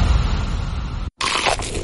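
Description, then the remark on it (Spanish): Loud, dense crunching of McDonald's crispy fried chicken being bitten, a crackly texture that stops for a split-second pause and then resumes, with no voices. “¿Eso que suena es pollo crujiente?”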